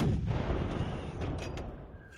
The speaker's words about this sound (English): We got to sound the cannons. Let's go. Fire the recruiting cannons.